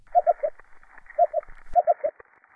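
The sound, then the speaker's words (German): A coral reef fish makes soft, hollow cooing calls underwater in a tropical coral reef, short pulsed notes coming in quick groups of two or three, repeated several times against a faint, steady background hum. “Und dieser Fisch gurt in tropischen Korallenriffen.”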